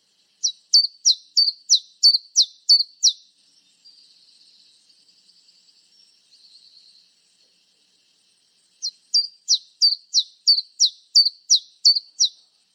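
A common chiffchaff sings nearby: a steady series of bright, repeated chip notes, a soft quiet warble in the pause, then another run of the same even notes, with no other sounds.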